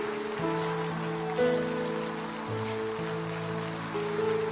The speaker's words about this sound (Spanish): Póngase de pie y dele un aplauso de alabanza al Señor.